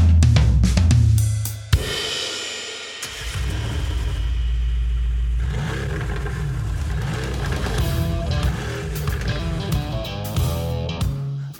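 A car engine revs loudly, then roars as it accelerates, its pitch climbing and falling through several surges over about ten seconds, with no talking.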